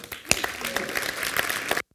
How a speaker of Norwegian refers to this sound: Applaus.